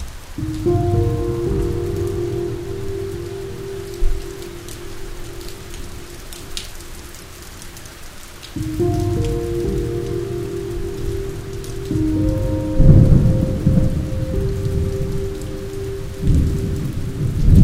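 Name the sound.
heavy rain with thunder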